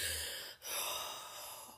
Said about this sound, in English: Deep breathing. That good ass prana baby, in the words of my guy. breathing in that good ass prana baby. um, deep breaths.